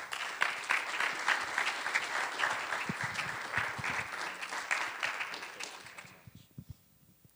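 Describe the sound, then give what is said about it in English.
An audience applauds to welcome a young man coming up to share the word of the Lord at a morning service, a dense, steady wash of many hands clapping, holding strong for about six seconds before thinning to a few scattered claps and fading out. “So, can you make welcome as this young man comes, and he's going to share with us the word of the Lord this morning,”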